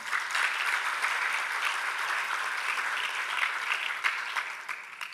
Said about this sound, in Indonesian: Itu satu jumlah yang luar biasa besar. Mana tepuk tangannya?